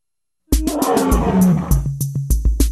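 After a brief silence, a loud, rough bear roar rumbles for about two seconds, low and gravelly, with a steady run of sharp rhythmic taps underneath. No one speaks.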